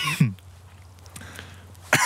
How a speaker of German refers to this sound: Du bist ein Lappen, du hustest.